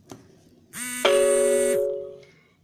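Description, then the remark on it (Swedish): A phone rings with an incoming call from an unknown number: a bright electronic tone with steady harmonic notes, holding for about a second and then fading out. No one speaks over it. “Någon som ringer.”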